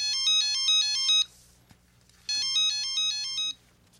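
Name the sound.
telephone ringing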